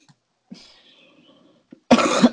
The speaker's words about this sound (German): Oh Gott, ehrlich kann ich husten. Oh Gott